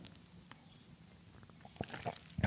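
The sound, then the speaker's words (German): Quiet mouth sounds of someone sipping water: soft slurps and a few wet clicks and swallows, growing a little louder toward the end, with no one talking. “Warte, ich brauche mal einen Schluck Wasser.”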